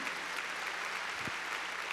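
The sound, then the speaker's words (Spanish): A church audience claps hands loudly and steadily for the Lord, a dense wash of applause without any speech. “A ver, démosle palmas fuertes al Señor en lo que”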